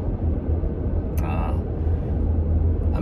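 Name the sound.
car interior road rumble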